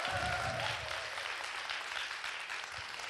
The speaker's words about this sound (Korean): 이렇게 모든 분들 대박 나시라고 여러분 큰 박수 감사의 박수 한번 부탁드리겠습니다.